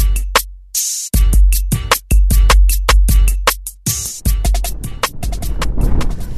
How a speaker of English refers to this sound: Hopefully, you can hear me over all this wind. So we're at like a pretty windy part of the descent.